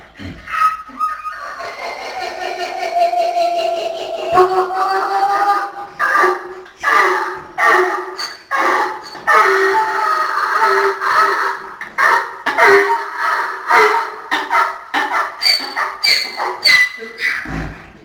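A donkey at the children's farm Het Molentje in Heemstede brays loudly and at length, its harsh, honking call see-sawing in pitch through a long run of rhythmic heehaw cycles. There is no talking.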